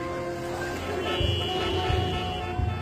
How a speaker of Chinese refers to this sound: 午后，无论你在哪里，耳边总是充斥着各种声音。 经过混乱喧嚣的公交地铁